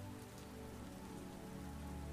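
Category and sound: nature, rain falling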